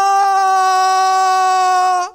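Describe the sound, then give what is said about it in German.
A voice imitates a sustained, loud scream of fright, a steady high-pitched "ah" held for about two seconds before cutting off abruptly, standing for twelve men screaming together in fear because they think they see a ghost. “Sie denken, ein Gespenst und sie schreien gemeinsam laut, ah,”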